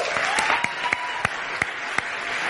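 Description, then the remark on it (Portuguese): A church audience breaks into steady applause for a Brazilian team of athletes, many hands clapping in a dense, continuous patter with a few sharper individual claps standing out, no voices above it. “Vocês podem receber com uma salva de palmas esses atletas?”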